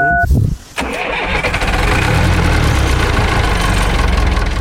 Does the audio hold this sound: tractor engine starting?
yes